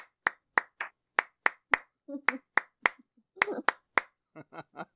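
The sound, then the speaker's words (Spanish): Rhythmic flamenco hand clapping, palmas de tango, directed at a bullfighting cuadrilla: crisp, loud claps in a brisk, steady beat, broken by short vocal sounds and murmurs between some of the claps. “Yo creo que se, merece, eh, se merecen palmas de tango.”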